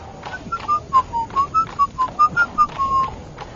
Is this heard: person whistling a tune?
yes